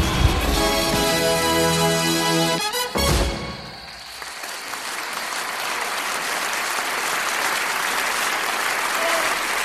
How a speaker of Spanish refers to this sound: Mientras la mujer agonizaba y se quedaba sin oxígeno, los espectadores y el jurado aplaudían, reían y coreaban su nombre. Pensaban que todo era parte del espectáculo.